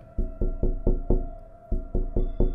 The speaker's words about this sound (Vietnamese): Quả không phụ sự mong chờ của chị Tiếng gõ cửa trên kia bắt đầu dồn dập Như không kiên nhẫn